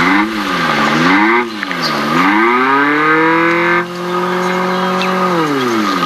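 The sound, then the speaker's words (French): A synthetic small-engine drone from an electric car's sound box, made for city driving. Its tone sweeps up and down in smooth waves, then holds a steady hum with a brief dip, repeating in a loop. No one speaks. “Ils ont quand même, ils ont fait les choses bien parce que quand on est à l'arrêt, on peut appuyer sur l'accélérateur et, simuler un bruit de petit moteur qui fait du bruit.”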